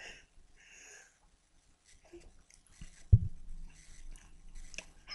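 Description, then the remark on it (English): Someone takes a sip of a drink, with soft slurping and breathy mouth sounds, then a single dull knock, like a cup being set down, amid quiet swallowing noises. “I'm gonna take a sip right now.”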